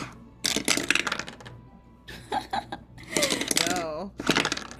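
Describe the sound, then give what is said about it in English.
Several loud bursts of clattering as a handful of dice tumble and rattle across a hard tabletop, with a voice briefly sounding between the rolls. “That's a lot of dice, and I'm pretty scared right now.”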